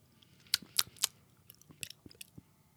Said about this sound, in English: Like the mouth noises in this fucking podcast. I don't know how to like I don't know how to So I will apologize about that because god, I hate hearing mouth noises too.